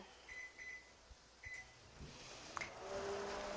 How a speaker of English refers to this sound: I'm going to set my microwave for medium right in the middle, and I'm going to give it one minute.